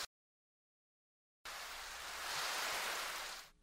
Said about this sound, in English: How's the weather in New York? It's terrible. It's raining right now.